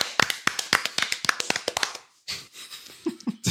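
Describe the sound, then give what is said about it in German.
A short burst of hand clapping, quick and slightly irregular, as if from only a few people, lasting about two seconds before stopping, then softer rustling and murmur. “Gibt's Applaus jetzt?”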